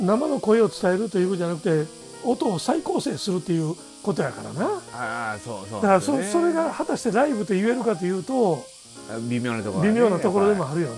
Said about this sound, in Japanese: 今これ、まあね、セミの声が聞こえてるから、うん、夏場のあの、うん、一番暑いじ時期の、えーと、オンエアだっていうことが、まあ、聞いて、はい、後でアーカイブで、えー、ポッドキャストで聞いても暑そうやけどええなっていう感じになる。